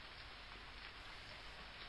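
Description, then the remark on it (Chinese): Soft, steady rain falls in an even hiss, quiet and continuous without pause, with no voices over it. “没有坠落的声音，它就这么消失了，只留下周围淡淡的落雨声。”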